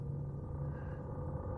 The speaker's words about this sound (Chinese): 一直都是占线，这个电话根本打不通。